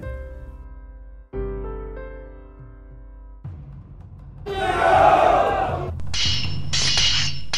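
A few seconds of tonal music give way to a loud, chaotic battle din of two combatants fighting with weapons beside a mountain, with yelling and clashing noise building to a roaring peak.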